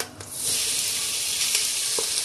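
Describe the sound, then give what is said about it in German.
Sliced meat (Geschnetzeltes) is tossed into a hot pan with frying oil and erupts into a loud, steady sizzle, a bright crackling hiss that swells within half a second and holds, with a few faint clicks scattered through it. “Und dann nehme ich jetzt das Geschnetzelte und schmeiße das mit da rein.”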